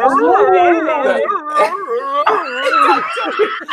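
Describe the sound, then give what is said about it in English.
A person imitates a husky's vocalizations: loud, wavering howls and whiny yips that slide up and down in pitch, running continuously for a few seconds with no other speech. “the dog comes in first. The husky goes.”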